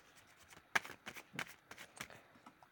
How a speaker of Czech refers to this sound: Už míchám karty.